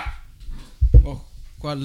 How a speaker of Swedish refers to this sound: valp som skäller ut oss också.